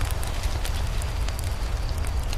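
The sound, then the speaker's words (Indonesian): A campfire crackles steadily, with frequent sharp pops and snaps scattered over a low, constant rumble of burning. It is fairly loud, and no one speaks. “cerita hangat dekat api unggun akan menemanimu sebelum tidur.”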